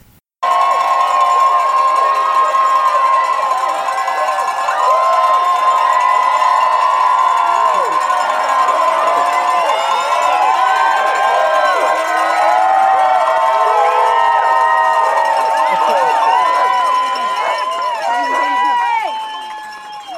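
A crowd cheers and shouts loudly and continuously for about twenty seconds at the Hard Rock 100 2023 ultramarathon finish in Silverton as Courtney Walter arrives, with overlapping whoops and high-pitched yells, fading slightly at the very end.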